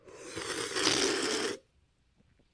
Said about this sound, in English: Ah, I just sipped my my delicious seltzer water.